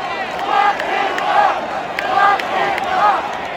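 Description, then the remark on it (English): A large crowd at a World Series baseball game at Nationals Park in Washington boos President Trump loudly, the sound swelling and easing in long sustained waves with many voices blending together and no single speaker standing out. “President Trump watched last night's game from a luxury suite at Nationals Park in Washington, where he received what you would call less than a warm welcome from many people in the crowd.”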